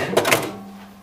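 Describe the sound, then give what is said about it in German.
The compartment flap of a fully automatic cassette player snaps open with a quick pair of mechanical clacks, followed by a faint lingering hum as the sound settles. “Wenn ich jetzt auf Drückspulen gehe, das so hier. Hm. Genau. Ich, ich aus, zu Hause Klappe auf”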